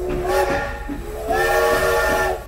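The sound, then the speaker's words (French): A steam train whistle blows in two long, loud, chord-like blasts with a hissing edge, rising again after a brief dip, over a low rumbling background. No one speaks. “Superbe image et superbe illustration sonore.”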